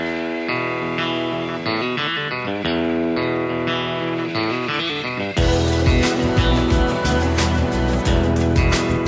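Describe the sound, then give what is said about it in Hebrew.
A distorted electric guitar plays a sustained, effects-laden intro riff alone, then the full band crashes in with drums about halfway through, loud and driving. “ואז השיר מתחיל, טון, חשמלי, טון, דון, דון, וזה נשאר.”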